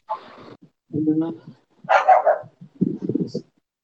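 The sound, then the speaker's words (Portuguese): A dog barks in four separate bursts spread across a few seconds, fairly loud, with short pauses between each one. “desculpa aí o cachorro”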